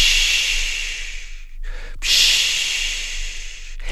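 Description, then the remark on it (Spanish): A voice imitates the sea sound heard in a seashell brought from Veracruz, making a long breathy hiss with a brief pause, then a second swelling wash of sound, fairly loud, with no talking. “A Triclinio le gustaba mucho escuchar el sonido del mar en el caracol que le había traído su tía Lupe desde Veracruz”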